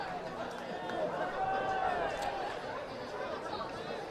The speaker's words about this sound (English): I love hearing the crowd noise. It's great, isn't it? Yes, it is.